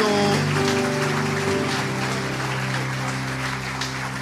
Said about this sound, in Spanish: Fuerte, si es para Cristo, dele fuerte al aplauso.